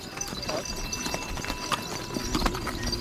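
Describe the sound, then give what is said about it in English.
Hooves clip-clop steadily along the Kora pilgrims' trail around a mountain, travelled by nomads with 25 yaks and a few horses, a busy run of overlapping hoof strikes with a faint bell-like jingle and soft background murmur, no clear speech. “We begin the Kora, the pilgrim's path, clockwise around the mountain, falling in on the trail with some nomads, 25 yaks, and a few horses.”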